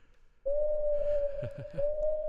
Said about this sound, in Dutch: Ja, insert de uil.